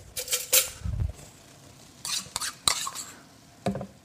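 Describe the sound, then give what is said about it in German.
A whole tube, about 200 grams, of tomato paste being stirred into about a liter of water in a measuring jug, with irregular scraping and clinking strokes of a utensil against the container, some sharper knocks, and a low thud near the start. “Das wird auch nicht mitgeröstet mit dem Hackfleisch, sondern ich spritze das jetzt hier oder ich packe das einfach in so einen Messbecher rein und verrühre das ganz schlicht mit Wasser.”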